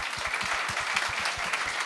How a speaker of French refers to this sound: Ah oui, on peut ben applaudir.